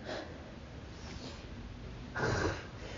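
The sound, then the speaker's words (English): Breathy sniffling with no talking: a brief nasal sniff at the start, then a louder, longer sniff near the end over a low background hiss. “Was that a sigh. the side? Yeah, I was sniffling.”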